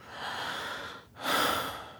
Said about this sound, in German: Ich höre, wie er innehält und einatmet.